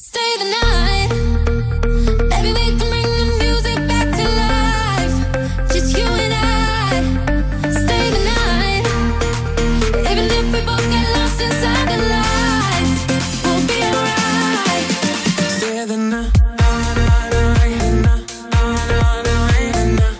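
An upbeat dance-pop song plays loud, with a steady driving beat, bright synths and a pumping bassline, briefly dropping out near the end before the beat kicks back in.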